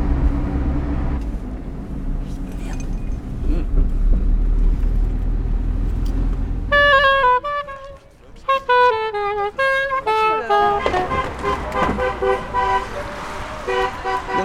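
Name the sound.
car driving past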